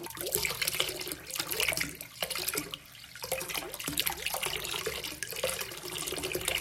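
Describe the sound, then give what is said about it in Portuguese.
Water runs steadily from a shower with a broad hissing splash, continuous, with no voices present. “Em reverência à água, me curvo e abro o chuveiro.”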